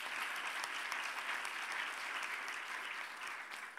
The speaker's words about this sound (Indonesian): Dengan tepuk tangan bagi Tuhan kita Yesus Kristus.